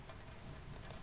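Steady rain falls with a continuous, dense hiss, quiet and even throughout, with no voices and no distinct individual drops standing out.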